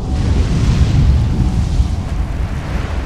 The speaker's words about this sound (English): Here comes the tsunami.